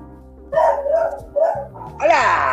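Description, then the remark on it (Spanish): A dog at the house across the street barks several times in quick succession, fairly loud, ending in a longer, higher-pitched bark that rises and falls, with a steady low hum underneath. “No, este sonido de perro no es mío.”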